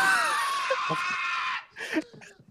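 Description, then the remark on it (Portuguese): A boy in a film clip being played back lets out a long, piercing scream that holds steady for over a second, then breaks off into shorter strained cries and ragged vocal bursts. “Pera aí, eu te, te, botar, te botar o grito aqui. Cara, o grito dele é muito bom.”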